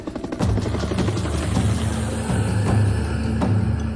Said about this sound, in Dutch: De ambulance is onderweg er gaat een helikopter de lucht in en het arrestatieteam maakt zich klaar om naar binnen te gaan.